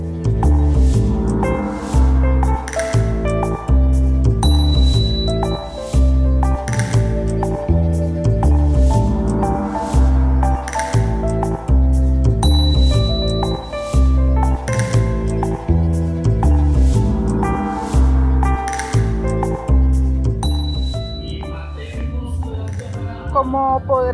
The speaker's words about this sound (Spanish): hay un ambiente bastante festivo de fondo porque estoy en la Feria Nacional, conocida, eh, un conocido mercado de la ciudad de Managua, donde, se, donde vienen y se eh, reúnen muchos productores, comerciantes de hortalizas, agricultores